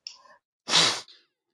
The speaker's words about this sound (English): someone's flicking a Zippo